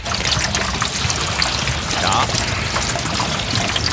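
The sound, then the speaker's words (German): Steady pouring and trickling rain water runs without a break, a dense splashing wash at an even level throughout, like rain streaming down a gutter, on a rainy Thursday in Upper Austria. “Großwaschtag beim Wetter.”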